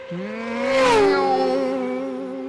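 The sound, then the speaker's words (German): A racing car engine at a car race marking the 1921 opening of the AVUS in Berlin revs with a high, steady whine that swells as it roars past, then drops in pitch and fades slightly as it moves away; no one speaks. “Natürlich mit einem Autorennen, wie sollte es anders sein.”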